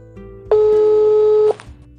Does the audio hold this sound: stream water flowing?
no